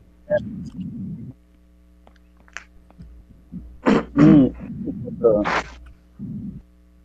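A sneeze bursts out, sharp and breathy, with a second explosive burst right after, surrounded by low throaty murmurs and grunting vocal sounds before and after.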